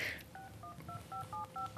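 A rapid run of about eight short telephone keypad tones beeps in quick, even succession as a number is dialed to phone a woman's mother, each a clear two-pitched electronic blip over a faint background hiss.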